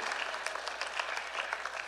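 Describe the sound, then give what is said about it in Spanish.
A church audience applauds during a sermon after the preacher asks them, including those at the back, to clap louder: steady, dense clapping, a continuous crackle of many hands at fairly even loudness with scattered sharper claps, and no voices over it. “Oh, puedes aplaudir mejor y allá atrás también, porque Dios te va a sorprender, pero sé consistente.”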